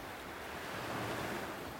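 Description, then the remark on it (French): A steady hiss of surf washing over a sandy beach on a hot, humid, sunny day with a light wind, with a soft swell of breaking water in the middle, moderately quiet, and no voices. “le bruit des vagues, le soleil chaud sur ma peau, la douce sensation du sable fin,”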